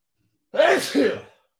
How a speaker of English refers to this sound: That was a good sneeze.